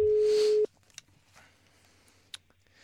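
A single steady ringback tone of an outgoing phone call sounds loudly for about half a second, then cuts off into a quiet phone line with a few faint clicks, as if the call has just been picked up.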